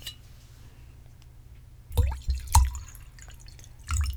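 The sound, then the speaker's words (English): Red wine being poured, heard as a few short splashy, glugging bursts after a quiet start, with a faint glassy clink and a final gurgle near the end. No one speaks. “Gotta have the red wine, right?”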